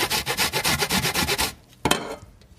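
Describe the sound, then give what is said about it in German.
Rapid rhythmic rasping strokes, about ten quick scrapes in a steady back-and-forth pattern, as ginger is grated over a grater into cabbage, then a pause and one last scrape fading out. No talking. “magst du mal den Ingwer ein bisschen reinreiben?”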